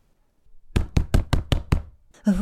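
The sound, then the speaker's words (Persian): Six firm, evenly spaced knocks on a door, loud, followed at the end by the start of a voice asking the doctor to open the door. “نه فعلا جواب ندین ممکنه نقشه کشیده باشن خانم دکتر در باز کنید”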